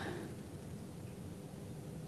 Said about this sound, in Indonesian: Baik Mbak, lagi hujan di sini.